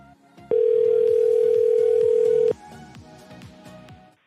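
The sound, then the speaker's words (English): A single loud, steady electronic ringing tone from an outgoing phone call lasts about two seconds, then stops. Softer music plays underneath throughout. “He's listening on the show and he's like, oh yeah, motherfuckers are calling me now. I'm not answering.”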